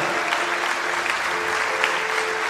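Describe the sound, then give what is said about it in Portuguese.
A church audience, asked to give glory to God loudly, responds with steady, dense applause and scattered shouts of praise, filling the space evenly for a few seconds while a soft sustained keyboard tone hums underneath. “Se esse é você, dá um glória a Deus bem alto.”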